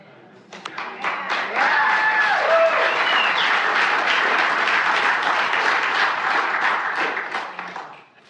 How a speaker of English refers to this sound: It's almost embarrassing that we clap for that.